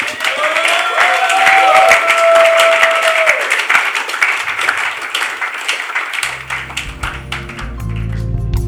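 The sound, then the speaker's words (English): An audience bursts into sustained applause giving God praise, dense clapping mixed with cheers and high whoops, staying loud throughout while a low organ or keyboard tone rises beneath it near the end. “Can we give God praise tonight?”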